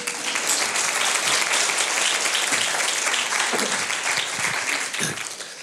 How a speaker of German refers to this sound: Komm, lass mal meiner Mama einen Applaus geben.